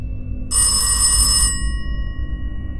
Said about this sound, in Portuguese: O toque do telefone da casa a despertou assustada